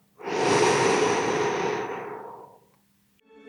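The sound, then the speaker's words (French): A slow, steady, airy breath in and out, drawn out for about two seconds before fading, then the soft start of another breath, taken as a calm breathing exercise while lying down with eyes closed. No one speaks. “On va faire une respiration calme, toujours les yeux fermés. Inspire. Expire.”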